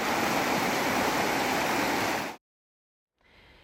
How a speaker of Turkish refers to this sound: Az önce yağan yağmurun yaklaşık yarım saat sonrasında Şıkpınar Vaskit çayına gelen sel.